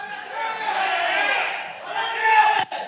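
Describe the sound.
An audience loudly shouting 'glória a Deus' all at once, competing to be loudest for a promised pizza, a dense roar of many voices sustained for a few seconds, swelling near the end before a brief dip.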